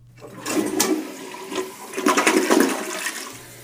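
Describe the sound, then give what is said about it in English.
A wax-free-seal toilet flushes with a loud, rushing swirl of water that builds, surges, then drains away with a gurgle. No one speaks. “And overall, this toilet just sounds great. I even recorded it for you.”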